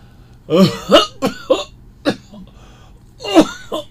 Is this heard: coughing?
yes